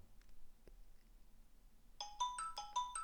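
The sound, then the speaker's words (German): A phone ringtone for an incoming call starts after a quiet, near-silent stretch, playing a quick, bright electronic melody of short repeating tones that sounds clear. “So, gleich klingelt es wieder.”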